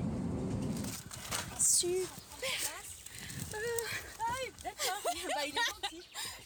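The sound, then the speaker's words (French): Birds sing outdoors at a friend's home in a lively run of short, rising and falling chirps and whistles, growing busier toward the end, after a brief low rumble at the start. “À peine arrivé ici, on entend les oiseaux.”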